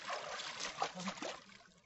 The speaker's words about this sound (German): Ah, und ein richtiger Planscher ist das hier. Ich frage mich, ob man hier die Planscher hört in der Audio.